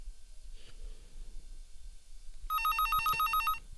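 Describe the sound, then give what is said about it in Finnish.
A telephone bell rings loudly for about a second, a rapid trilling burst of bright harmonic tones, after quiet low background rumble and a soft breathy sound. “Puhelinkin soi.”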